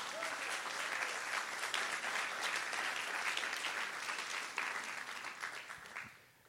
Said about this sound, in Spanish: Alguien le da un aplauso fuerte al Señor por eso.